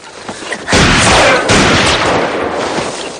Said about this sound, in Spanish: Los disparos provienen de una montaña.